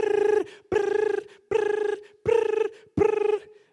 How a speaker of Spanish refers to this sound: me meto a la ducha y el celular está sonando.